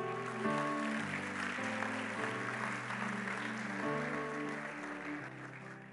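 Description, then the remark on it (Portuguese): An audience applauds the Lord, clapping steadily and densely for several seconds over sustained keyboard chords that shift every second or so, the applause staying loud and even throughout with no voices standing out. “Aplauda o Senhor.”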